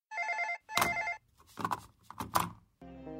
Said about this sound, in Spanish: Tras sus victorias en las tres primeras rondas, sonó el teléfono de la habitación del hotel.